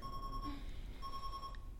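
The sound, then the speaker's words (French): An alarm clock rings in two sustained electronic tone bursts separated by a brief pause, steady and fairly clear over a low rumbling background hum. “J'éteins le réveil.”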